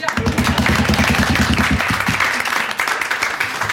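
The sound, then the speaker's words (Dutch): Audience applause fills the whole stretch, a dense, steady patter of many hands clapping at a fairly loud level, with faint voices mixed in beneath it. “Nou, wel met applaus.”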